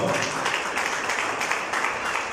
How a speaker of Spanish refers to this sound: Déselo al Señor si le va a dar ese aplauso, por favor.